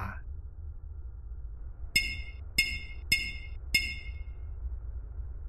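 Four sharp knocks on window glass, tapped with an index finger, each a bright clinking tap, arriving in a slightly uneven rhythm over a low, steady background rumble, with no one speaking.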